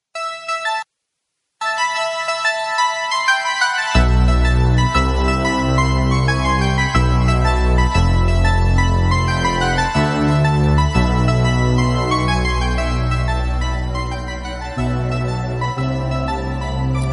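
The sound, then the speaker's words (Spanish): Bright electronic bleeps of a Pac-Man arcade game sound loudly and steadily, a busy chiptune-style melody that soon gains a deep pulsing bass underneath. No one speaks. “se escucha al final el Pac-Man.”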